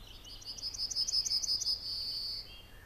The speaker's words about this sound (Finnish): Moni vanhempi lintuharrastaja muistelee kaiholla talviruokintapaikoille pyrähteleviä isoja, värikkäitä ja eloisia keltasirkkuparvia – ja ennen kaikkea niiden hauskoja ääniä.